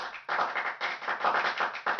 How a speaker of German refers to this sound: Ein Befund, dem er auf seinem Tontagebuch selber applaudiert im wahrsten Sinne des Wortes. Sein mehrfach einzeln aufgenommenes Klatschen kopiert er übereinander, so dass am Ende der Eindruck eines vielköpfigen Publikums entsteht.